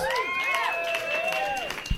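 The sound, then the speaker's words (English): A crowd cheers for a band with rising and falling whoops and shouts over a steady wash of clapping, sustained and fairly loud for the whole stretch. “to cheer for the best goddamn band in the land”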